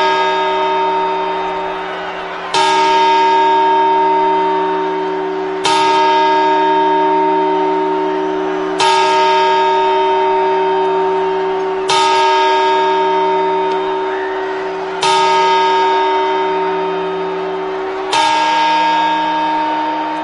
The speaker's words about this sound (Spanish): Y eh, no tengo reloj, pero ya, ya van a ser la hora de las campanadas. Y vamos allá con las campanadas. Cuartos. Y ahora las campanadas.